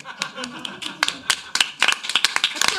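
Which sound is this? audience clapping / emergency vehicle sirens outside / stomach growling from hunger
audience clapping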